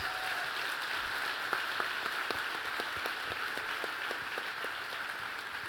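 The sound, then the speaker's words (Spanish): Steady applause from a crowd for those who took part in the Fall Festival, many hands clapping at once in a dense, continuous patter that holds at an even level throughout with no voices. “Desen un fuerte aplauso a ustedes.”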